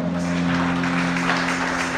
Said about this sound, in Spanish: Denle un aplauso al Señor con todo su corazón.